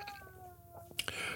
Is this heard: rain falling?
no